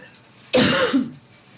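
A single loud cough bursts out abruptly and rings briefly with a rough, throaty tail before fading back into quiet.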